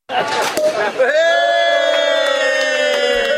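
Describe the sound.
A lively crowd clamours briefly, then breaks into a loud, sustained collective cheer, a long held whooping shout from many voices: people in Melbourne toasting the end of the COVID-19 lockdown at 11:59 pm on a Thursday night.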